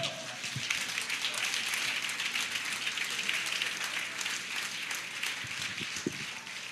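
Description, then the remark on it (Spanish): An audience applauding the Lord steadily, a dense wash of many hands clapping at an even, sustained level throughout, with a few faint voices mixed in underneath. “Alaba, aplauda al Señor.”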